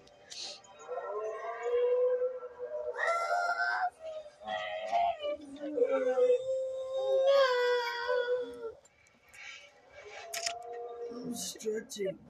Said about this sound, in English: Okay, I usually moan really loud when I stretch because I'm a fucking weirdo. Or screech like that